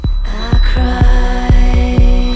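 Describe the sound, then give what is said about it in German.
A dark electronic remix, darker than the original song, with a steady, pounding kick about twice per second under sustained droning synth chords, opening with a short hiss of static-like noise. No voices. “Ist ein bisschen düsterer geworden als das Original mit diesen Störgeräuschen.”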